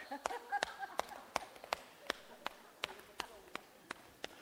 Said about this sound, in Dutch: Misschien gaan we het even praktisch doen. Sla maar eens even op je buik.